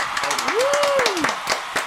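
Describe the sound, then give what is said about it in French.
Audience applause: many hands clapping in a dense, steady patter for the whole moment, with a single voice's drawn-out cheer rising and falling over the clapping. “On peut applaudir.”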